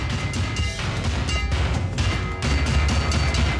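Loud, dense clanging and banging of metal oil drums being struck repeatedly, a continuous clattering din with booming low thuds and no speech.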